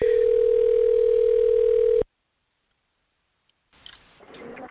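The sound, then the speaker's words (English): A loud, steady telephone dial tone holds for about two seconds while calling a caller back after a dropped call, then cuts off to silence before faint voices and background noise rise up. “We're going to call her back right now.”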